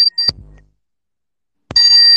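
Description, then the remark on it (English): A loud, shrill electronic alarm tone sounds briefly, cuts off into near silence, then blares again steadily, with no talking. “Sorry, my, uh, I'm the alarm in my.”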